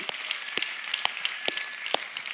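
A church audience at a service in Nuremberg, Germany, applauds one another as a greeting: dense, steady clapping from many hands, with a few sharper, louder claps standing out about every half second. No one speaks over it.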